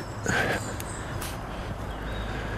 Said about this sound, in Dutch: Ja, we zitten in echt bos, in het bos. Hè? We kunnen misschien zelfs hier eens... Eh, ik hoor zelfs vogeltjes.